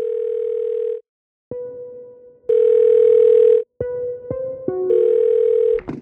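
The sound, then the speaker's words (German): A telephone rings on the line before a call to the Berlin crisis service is answered: steady electronic tones repeat in long bursts with short silent gaps and a few clicks. No one speaks. “Telefonisch ist der Krisendienst in Berlin sogar rund um die Uhr erreichbar.”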